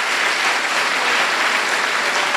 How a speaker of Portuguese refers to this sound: Ele merece nosso aplauso, amém? Glória a Deus.